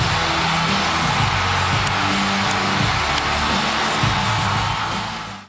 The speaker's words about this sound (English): The crowd goes wild.